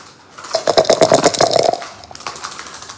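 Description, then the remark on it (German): Dice are shaken and rolled to see who gets the highest throw: a dense, rapid burst of clicks for over a second, then a sparser scatter of lighter clacks as they tumble and settle. No one speaks. “ob wir wenigstens einmal die Würfel schwingen und die Zuhörer fragen, wer wohl den höchsten Wurf hat.”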